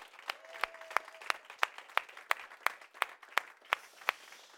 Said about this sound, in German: Aber wir wollen euch zu Hause einen kraftvollen, liebevollen Oase-Applaus, Jesus-Applaus geben. Machen wir das nochmal mit einem gescheiten Applaus heute Morgen.